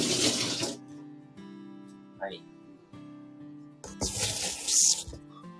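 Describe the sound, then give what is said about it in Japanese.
Tap water gushes in two bursts to soak sliced onions and take away their bitterness: a short rush at the start, then a fuller, louder splashing stream a few seconds later, with a steady low hum running underneath throughout. “えっ、ー、と、ちょっとね、水で、あの、浸します。ちょっとね、苦味を取るため”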